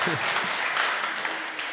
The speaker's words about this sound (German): Zweitens, äh, ja, Applaus.